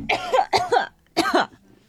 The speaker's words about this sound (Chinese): 我呛到了我自己。 哦，那你你要说明一下，你咳嗽是因为呛到了，好吧？不然我待会打幺二零了就。